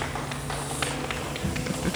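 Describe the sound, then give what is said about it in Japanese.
A group of trainees stomps their feet in a steady rhythm as part of a recorded music piece, dull thuds landing about every quarter second, over a faint low background tone. “これ皆さんも想像してもらいたいんですけど足踏みしてる足踏みしてます”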